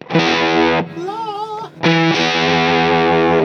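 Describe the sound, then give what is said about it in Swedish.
Heavily distorted electric guitar through a harmonizer, with an added harmony note, a major third, stacked on each played tone: two loud sustained chords separated by a brief, wobbling, thinner passage. No voices. “Ja, men om vi tar kvint till exempel, då Ja. låter det så här. Det blir som en... En durtärs.”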